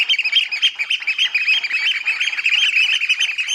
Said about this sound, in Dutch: Ja, en we kunnen het wel eventjes laten horen hoe dat dan klinkt, zo'n schoolekster.